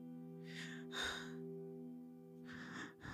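Several quick, heavy breaths in and out, two pairs of anxious panting, breathy, over a steady low musical drone, with no talking.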